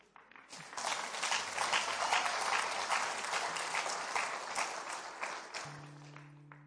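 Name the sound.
audience applause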